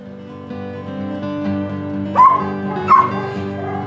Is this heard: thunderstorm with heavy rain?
no